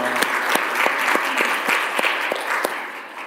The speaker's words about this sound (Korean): 할렐루야. 우리 감사와 찬양과 영광을 박수로 한번 돌려볼까요? 할렐루야.